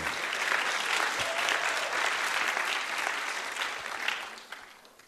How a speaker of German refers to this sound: Ganz genau. Sehr, sehr gut. Ein ah, kleiner Applaus hier, ja.